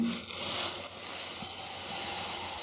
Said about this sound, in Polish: I mam tutaj słonecznik. Wsypuję jedną szklankę ziaren słonecznika